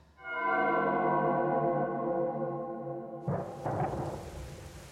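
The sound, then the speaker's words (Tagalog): A steady droning tone holds for a few seconds, then a sudden loud rush of heavy rain takes over with a couple of rumbling surges. No one speaks. “Ang lakas ng ulan”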